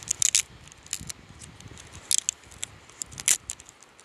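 A label being peeled off a 1.5-litre bottle of water: a series of short, crackly tearing bursts with scattered papery ticks and rustles, fairly quiet and without any talking.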